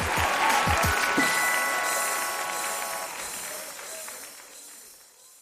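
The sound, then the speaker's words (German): Audience applause at a live show recording as the host comes on stage, a dense wash of many hands clapping with a few low thumps early on, gradually fading away over several seconds. “Vielen Dank für den reizenden Applaus.”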